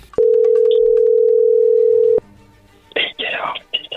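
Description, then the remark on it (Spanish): A telephone call is being dialed: a steady, loud telephone tone drones for about two seconds, then cuts off abruptly, followed by a faint line hum and bursts of hissy, crackly noise as the call connects. “ahí se está marcando, no hagas nada de ruido”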